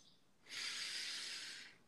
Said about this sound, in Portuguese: Inspire e expira bem profundo